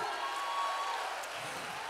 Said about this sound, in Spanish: Ay, dale un mejor aplauso de ahí al Señor.